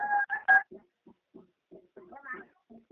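Three quick electronic telephone dialing tones beep in close succession, loud, followed by faint, murmured voices talking in the background.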